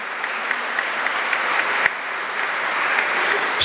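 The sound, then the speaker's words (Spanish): A crowd applauds steadily, a dense wash of many hands clapping, sustained evenly for a few seconds without voices rising above it. “Un aplauso al burro, burro el burro.”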